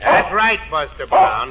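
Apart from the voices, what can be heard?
dog barking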